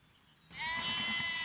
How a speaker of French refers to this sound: Mais je suis dans un champ de 2 hectares, peut-être un peu plus. Il y a toutes les brebis et les agneaux éparpillés, ça mange un peu.